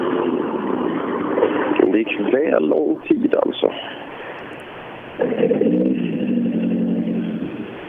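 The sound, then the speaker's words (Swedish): A rally car's engine drones and revs on a forest stage beneath a man's commentary, growing louder and holding a steady roar over the last few seconds; the approaching car is Stenberg's. “vi se vad det är för bil.”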